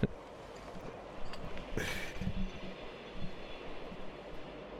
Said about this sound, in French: C'est quoi ce bruit Un train Je un avion qui passe. C'est bizarre comme bruit.